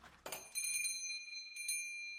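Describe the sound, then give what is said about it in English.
A shop door chime rings out as a customer enters, a bright metallic bell struck several times in quick bursts, its clear tones lingering and slowly fading, with no voices. “The door chime rang, and Tom dropped the blade.”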